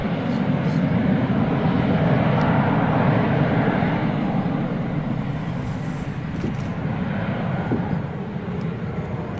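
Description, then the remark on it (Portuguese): A loud, steady engine roar of a cargo airplane approaching an aerodrome to land, a dense low rumble with broad hiss above it that holds constant without breaks, dominant throughout. “subitamente o som do avião.”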